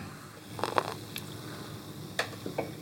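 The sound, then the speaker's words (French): Beer fizzing and foaming in a glass: a quiet, soft crackle of bubbles broken by a few brief, brighter pops, with no one speaking. “Ça mousse. Oh, ce bruit. C'est pétillant.”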